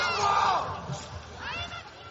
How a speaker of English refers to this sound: Plenty of encouragement from the French team there, shouting.